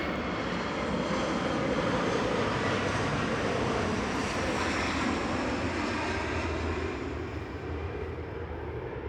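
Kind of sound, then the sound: vehicle, low-flying airplane passing overhead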